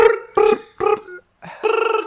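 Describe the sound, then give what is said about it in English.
A voice mimics a fart with a few short, buzzy toots, followed after a brief pause by a longer fluttering, trilled raspberry, all fairly loud. “Toot toot. Brr. That's the sound. That's the sound of fart night.”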